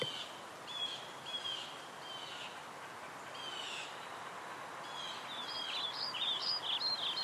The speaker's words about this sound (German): Ganz leise hörst du die Vögel singen, hier und da das Rascheln der Blätter und das sanfte Knacken der Äste.